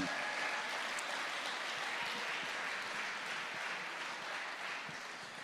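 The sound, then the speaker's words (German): An audience applauds for the Lord, a steady, dense wash of many hands clapping at even loudness throughout, easing off slightly toward the end, with no voices standing out. “Wollen wir dem Herrn nochmal einen Applaus geben, der regiert?”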